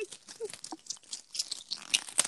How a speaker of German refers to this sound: Ja, ich musste gerade Papier auseinanderreißen, weil. Ja, von Tempos.